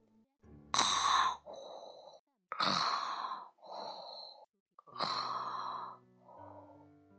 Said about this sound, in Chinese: 哦，他们呀，听到了他呼噜的声音。